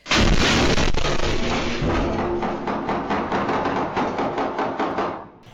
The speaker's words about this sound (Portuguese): Muito estrondo, bastante mesmo. A cidade toda abalou. A câmera de segurança de uma loja registrou o barulho de tiros e uma das explosões.